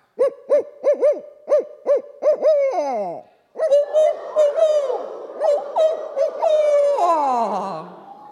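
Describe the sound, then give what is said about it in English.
Human voices imitate owl hoots in a call-and-response pattern: one person gives a rhythmic series of hoots, then a group answers with overlapping, sliding hoots that trail off, all fairly loud. “Now we're going to mimic that same pattern with our owl face on. I'm going to call first and then you call back.”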